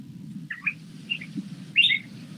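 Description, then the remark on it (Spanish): A thrush sings three short, bright whistled phrases, the last one loudest, over a steady low background hum. No one speaks. “No, no es un loro, es un zorzal, pero ya, ya me voy en mute por acá.”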